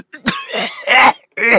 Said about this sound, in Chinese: 伴随着咳嗽声